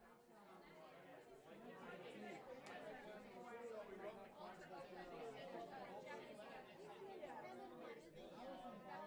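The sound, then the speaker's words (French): A dense murmur of many overlapping voices fills a bookshop, the steady bustling chatter of a crowd queuing for a book signing, with no single speaker standing out, continuous throughout. “Entends derrière toi comme de l'agitation dans la librairie fleurie et botte.”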